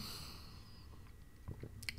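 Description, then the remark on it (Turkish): Quiet sipping from a glass of water, with soft mouth and swallowing noises that grow a little more distinct near the end, and no talking. “Bir bardak, bir yudum su içiyorum.”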